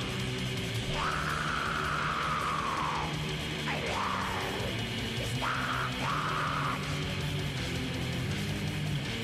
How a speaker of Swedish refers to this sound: Shit vad dåliga riff. Ja, det var, det var faktiskt förvånansvärt taffligt alltså. Jag kan uppskatta entusiasmen i det på något sätt. Dock. Ja, de låter ju glada i alla fall.